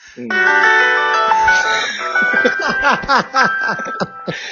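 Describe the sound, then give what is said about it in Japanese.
A short, bright piano jingle played as an opening rings out clearly for about two seconds, its notes sustaining and overlapping, then fades as a person starts talking over the tail. “で、さっきのオープニングどうだったあの、ピアノの音どうだったあれいいああのね、あの、高速道路の渋滞情報が急に流れるときみたいな。”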